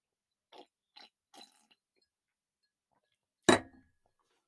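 Three short, quiet slurping sips in quick succession, followed after a pause by a sharp, louder clunk like a glass being set down on a hard surface.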